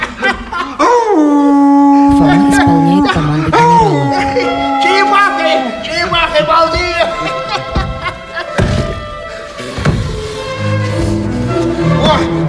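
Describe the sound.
A person imitates a wolf, letting out several long, drawn-out howls that rise and fall in pitch, loud, followed by a noisier stretch of voices and commotion.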